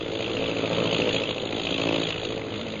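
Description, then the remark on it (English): The engines of ten bomber planes flying overhead drone in a steady, unbroken roar, a thick low hum layered with buzzing harmonics that holds an even loudness throughout, with no voices. “Ten bombing planes, eh?”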